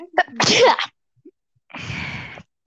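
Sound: sneeze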